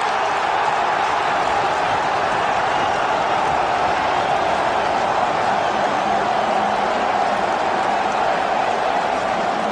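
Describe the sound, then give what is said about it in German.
A packed football stadium crowd in Hamburg roars in celebration after a Bundesliga goal against Bielefeld, a loud, sustained wall of cheering and shouting that stays steady and dense for the whole stretch. “Hamburg jubelt, Hamburg feiert, Hamburg feiert von der Fahrt.”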